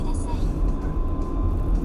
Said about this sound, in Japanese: 例えば今車で陸橋を登って降りようとしています